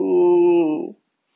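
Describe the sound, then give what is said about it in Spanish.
A dog lets out a single drawn-out, tonal whine, loud, that holds steady for about a second before cutting off into silence. “Eso es mi perro.”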